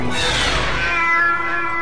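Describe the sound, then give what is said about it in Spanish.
A cat lets out one long, loud, drawn-out meow with a harsh, wailing edge, filling the moment with no other sounds around it. “de entre el humo vio con asombro y terror que salía un gato.”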